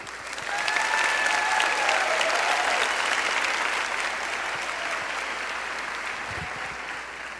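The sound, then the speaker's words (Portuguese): An audience applauds together after a Gospel reading, a dense, steady wash of many hands clapping that holds for about seven seconds and eases only slightly toward the end. “Pode aplaudir.”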